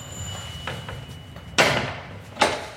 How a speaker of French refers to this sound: On pousse la lourde porte en bois, on emprunte l'escalier un poil escarpé jusqu'au quatrième.